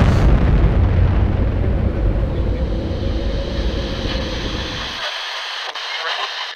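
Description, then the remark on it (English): A massive nuclear explosion from a small nuclear device, a nuke fired from an RPG at a pyramid, roars loud, a deep, sustained rumbling blast that fills the first five seconds before the low end abruptly drops away, leaving a thinner airy hiss trailing on. “Uh, it is confirmed that this explosion is nuclear in nature.”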